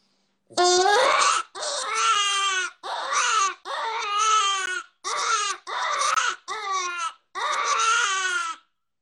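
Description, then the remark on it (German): Shrill, wailing distress screams of a hare blown on a predator call, about eight loud bursts in steady succession, each a quavering cry much like a sobbing infant, with no talking. “Weißt du, ein Hase schreit, klagt jämmerlich, der, der kämpft gerade um sein Leben.”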